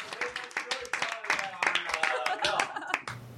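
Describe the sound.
A group of people clapping together in a dense, rapid patter of sharp claps for about three seconds, the nightly clapping at Michigan Cooperative House, an Ann Arbor co-op, where members share a home-cooked meal, with some voices mixed in underneath before it cuts off.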